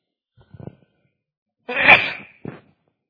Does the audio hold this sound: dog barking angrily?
no